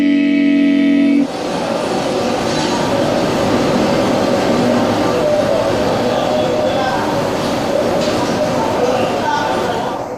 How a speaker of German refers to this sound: Aufgebrachte Menschenstimmen, Unruhe, vereinzelt Schreie. Was da zu hören ist, ist der Ton einer Videoaufnahme von Demonstrationen in Hongkong, viele Monate vor dem Beschluss des Nationalen Sicherheitsgesetzes.